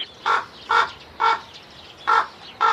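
Five harsh, croaking raven calls in an evenly spaced series, each a short hoarse burst, fairly loud with no voices over them.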